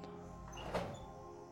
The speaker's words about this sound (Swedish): Hur du kommer upp. Hissen stannar. Och du kan skjuta upp dörren.